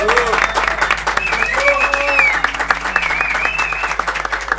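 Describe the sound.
An audience breaks into loud, sustained applause, a dense wash of many hands clapping steadily for several seconds, with shouts and cheering voices rising over it.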